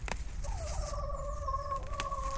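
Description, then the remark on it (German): A chicken approaching gives a drawn-out, slightly wavering call that holds steady for a couple of seconds over a low background rumble, fairly clear. “Ein Huhn kommt näher und schaut verdutzt.”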